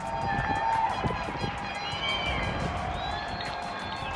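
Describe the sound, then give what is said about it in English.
A crowd in London claps and cheers steadily outdoors for hospital staff, a dense patter of many hands with shouts and whistles mixed in, loud and sustained throughout. “In London, an ICU nurse told her boyfriend she didn't believe there would be any clapping. She was wrong.”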